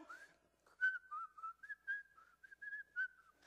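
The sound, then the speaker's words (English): A person whistles a short, wandering melody of a dozen or so notes, some held and some quick, sliding between pitches. It is soft, with no talking. “Maybe he was whistling Dixie. I don't really know what he was whistling”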